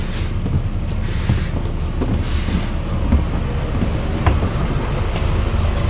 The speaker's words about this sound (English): This bus terminates here.